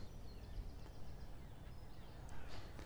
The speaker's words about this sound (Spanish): En este momento no hay muchos sonidos, yo escucho unos pájaros allí lejos, ¿vale?